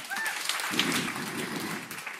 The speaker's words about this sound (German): Heißen Sie sie herzlich mit einem Applaus willkommen.